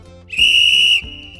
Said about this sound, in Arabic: قسم الأستاذ الببغاء مكاو الصغار إلى فريقين وأطلق صافرته معلناً عن بداية وقت المباراة